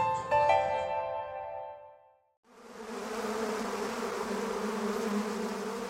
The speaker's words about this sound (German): Süßlich riecht die Luft, betörend für Tausende von Bienen, die sich auf das gelbe Feld gestürzt haben. Die Flur leuchtet, bis das Gelb vom Grün des Waldes abgelöst wird, darüber der blaue Himmel.